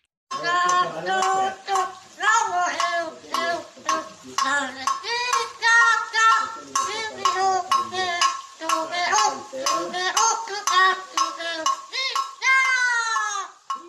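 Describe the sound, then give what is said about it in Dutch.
A bird, recorded in Brazil, sings a bright, warbling melody while tapping a small jug on the floor with its foot, steady clinking knocks running under the song throughout, ending in a rising, sliding note. “Eh, je hoort dat hij in het Braziliaans het melodietje zingt, maar ook met zijn poot op, met een soort kannetje op de vloer zit mee te tikken tegelijkertijd.”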